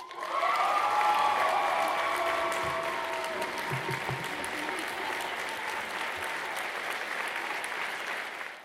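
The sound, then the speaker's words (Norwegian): A crowd breaks into sustained applause with cheering and whoops for the newly elected leader of the Norwegian Students' Organisation (Norsk studentorganisasjon), loud from the start and continuing steadily for several seconds before easing slightly toward the end. “Dette er jubel til studentenes nye stemme.”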